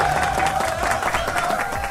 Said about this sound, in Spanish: Te ponemos un aplauso acá, pero no te va, no lo vas a poder escuchar.